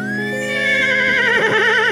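A horse whinnies in one long, loud call that wavers and trembles as it goes, ending abruptly after about two seconds with no talking.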